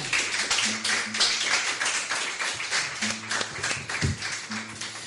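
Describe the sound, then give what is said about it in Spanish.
An audience applauds the final guests of the event for about five seconds, a steady, dense wash of many hands clapping at a fairly loud, even level, with faint low tones murmuring underneath. “Vamos a darles un aplauso, agradecerles que hayan venido.”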